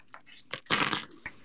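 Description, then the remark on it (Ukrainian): Sharp metallic clicks from a new extended 30-round Glock pistol magazine being unloaded, irregularly spaced, with one longer rattling, scraping burst in the middle. Moderately loud, with no voices. “У нас там щось клацає. Це я розряджаю свій новий майбутній магазин.”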